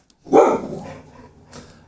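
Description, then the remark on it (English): A blind dog gives one loud bark that trails off, followed by a softer second yelp about a second later, with no talking over it. “My dog's blind, yeah, so yeah. he talks.”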